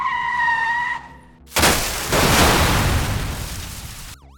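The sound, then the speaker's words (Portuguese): A high, sustained tire screech from a car whose brakes were cut gives way to a loud, abrupt crash with a long, noisy rumble of impact and debris, followed by a brief wavering tone at the very end. “Ele cortou os freios do carro do grilo e então.”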